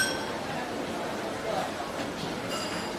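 Busy open-air hawker centre, a common people's eatery, ambience: a steady wash of overlapping crowd chatter and background bustle, with faint clinks of dishes and utensils scattered through it at an even, moderate level.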